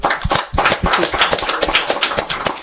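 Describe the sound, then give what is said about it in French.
A crowd applauds the participating teams at the end of a debate, with dense overlapping claps forming a loud, continuous crackle that holds at an even level throughout, with no one speaking. “Je pense que tout le monde aussi pour les applaudir, s'il vous plaît.”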